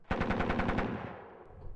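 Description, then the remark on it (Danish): German soldiers open fire on Eli Knudsen's dog sled and dogs: a loud, rapid burst of automatic gunfire, roughly eight sharp shots in quick succession, followed by a lingering rumbling fade as the echo dies away. No voices are heard. “Derpå åbnede tyskerne ild mod Knudsens slæde.”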